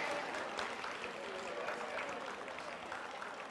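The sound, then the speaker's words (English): A crowd makes a sustained improvised verbal drum roll for a man about to lift 405 pounds, a dense, steady patter resembling rain or scattered applause that holds at an even level for several seconds without distinct words. “Everybody give him like a, uh, a verbal drum roll.”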